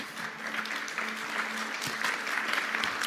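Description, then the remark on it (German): An audience at a church service applauds a special guest invited onto the stage, a steady, dense wash of many hands clapping at an even, sustained level with no pause, while a faint low hum runs underneath. “gebt ihm mal einen ganz, ganz großen Applaus.”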